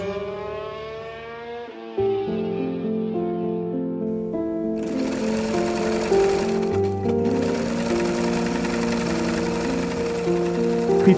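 A sewing machine runs steadily as a woman sews matching family uniform clothes for her wedding. Its motor hums and whirs in a continuous drone that shifts pitch slightly, growing busier and louder partway through, with no voices present.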